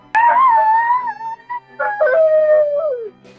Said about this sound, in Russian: И подпалили волку попу! Волк не смог выбраться из трубы быстро. Он медленно протискивался, пока не застрял окончательно. Волк завыл от боли.